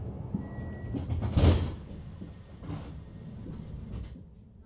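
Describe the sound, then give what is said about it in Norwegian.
Low rumbling interior noise of a moving train carriage on its way to Drammen, with a sliding door whooshing and thudding partway through and faint rattles over the steady hum. “Vi sitter på toget og er på vei mot Drammen.”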